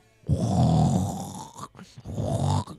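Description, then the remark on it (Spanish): A voice imitates snoring, likened to Krusty, with two rough, rattling snorts, a long one followed by a shorter one after a brief pause, loud. “Roncando.”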